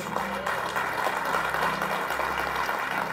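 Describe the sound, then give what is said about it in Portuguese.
An audience applauds the Lord together, a dense and steady wash of many hands clapping that holds at an even, fairly loud level for about three seconds, with a faint low hum underneath. “Você pode dar um aplauso, Senhor, por isso?”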